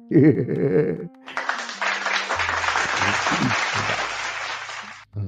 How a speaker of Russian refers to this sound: а мне аплодисменты.